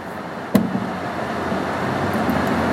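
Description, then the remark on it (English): A single sharp clunk jolts through the steady rumble of a moving car's interior, a mechanical bump from the car's faulty differential, followed by continuous road noise with no talking. “sorry if you heard that bump. That's the fucking thing I'm dealing with with this car, the um, differential thing, this brushing or whatever they call it.”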